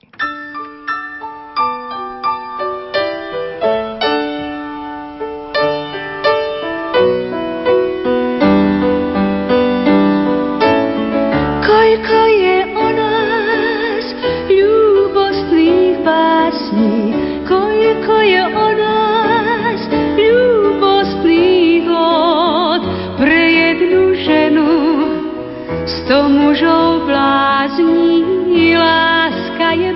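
A 1973 song recording performed with a full band: chiming keyboard-like notes open it, then a wavering lead melody rises over sustained chords and steady accompaniment, staying loud and full throughout.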